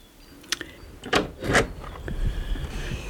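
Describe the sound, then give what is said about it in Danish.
The door of a house in Sweden being opened onto a field: a sharp latch click, then a couple of scraping, creaking movements as it swings, followed by a low rumble of outdoor ambience. “Her er fred og ro, når jeg åbner døren og kigger ud over marken og hører fuglene pippe.”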